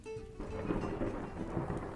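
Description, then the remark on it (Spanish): A deep, steady rumble of thunder from a tropical storm in a forest rolls on for a couple of seconds, with the hiss of a tropical downpour underneath. It is moderately loud and continuous, and no one speaks. “Después en un bosque que generaba tormentas tropicales”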